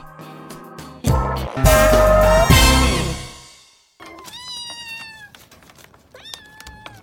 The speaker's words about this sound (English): Kittens!